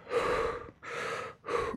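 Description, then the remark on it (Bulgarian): Three sharp, raspy gasping breaths, each loud and airy, the last one shortest, with brief pauses between them and no speech, as a man takes his first breath of life. “Човека оживя първи дъх.”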